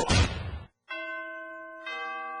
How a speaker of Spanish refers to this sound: En la radio del diario ya se escuchan las campanas navideñas. La música y la alegría de la Navidad ya llegó.